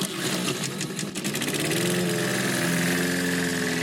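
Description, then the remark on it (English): A small lawn mower engine sputters and catches, then settles into a steady, loud running drone, with no voices present. “Mowers, start your engines.”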